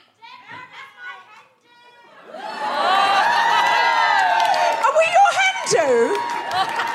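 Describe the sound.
A live audience at a hen party breaks into loud, sustained cheering with high whoops and shouts when asked to cheer if anyone is thinking about proposing, rising suddenly after a brief stretch of talking and continuing to the end.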